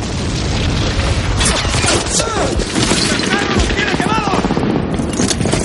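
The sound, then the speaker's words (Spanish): Loud, dense battle gunfire on a bridge as soldiers try to connect a detonator wire and a sergeant is hit in the back: rapid overlapping shots and heavy booms crackle without pause, with indistinct shouting voices mixed into the chaos. “Una bala alcanza al sargento en la espalda.”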